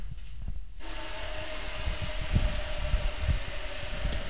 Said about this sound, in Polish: I teraz można puścić wodę.